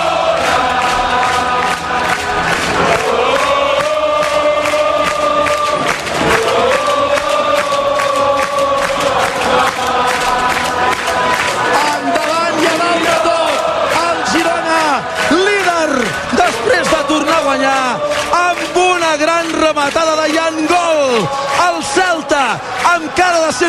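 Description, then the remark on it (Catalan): A huge crowd of Girona football fans at Montilivi stadium sings the club anthem in unison, loud and sustained throughout, thousands of voices carrying the melody with a broad, echoing roar. “els que ja hi eren s'hi han deixat els pulmons bufandes, banderes sona l'himne que la tornada a Montilivi i a rac sona així Girona!”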